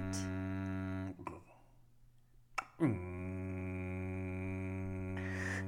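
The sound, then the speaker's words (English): A voice mimics an apartment parking garage door opening with a low, steady droning hum. It runs for about a second, pauses with a click, then rumbles on again for several seconds. “So every time someone would come in, you'd hear a.”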